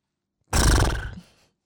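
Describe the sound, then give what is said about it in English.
A single loud, clear horse whinny bursts out after a moment of silence and lasts about a second before trailing off quickly. No one speaks. “Hey. Is for horses.”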